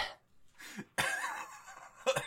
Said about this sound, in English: with a series of dry coughs.